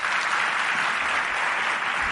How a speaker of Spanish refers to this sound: Un aplauso para ellos. Gracias.